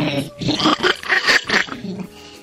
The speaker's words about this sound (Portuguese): Eu tô com um pouco de picarro. É, eu tô com pigarro hoje, tá um pouco foda aqui. Deixa eu fazer a limpeza na garganta aqui, tá? pera um pouquinho.